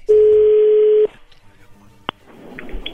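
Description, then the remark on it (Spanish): A loud, steady electronic ringback tone holds for about a second, then cuts off, followed by quiet line noise, a brief click, and faint murmuring voices on a phone line. “Ahí entra la llamada.”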